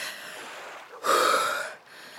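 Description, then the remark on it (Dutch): A person who has just gone under water and come out soaked gasps for breath, a sharp, loud intake around the middle standing out against continuous ragged, wheezy breathing that runs before and after it. “Even, even naar adem op, hoor.”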